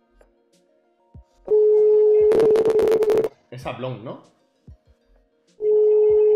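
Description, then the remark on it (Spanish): A phone's ringback tone plays through a speakerphone: a loud, steady electronic tone lasting about two seconds, returning after a pause, with a person speaking briefly in the gap. “Ay, venga, pon altavoz.”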